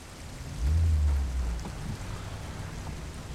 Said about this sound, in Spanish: Es un día lluvioso en la ciudad.